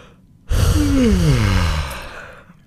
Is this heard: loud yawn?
yes